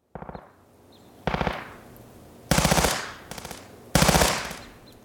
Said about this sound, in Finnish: Ammunat käynnistyivät. Tein työtä käskettyä. Purskauttelen lyhyitä sarjoja tauluun.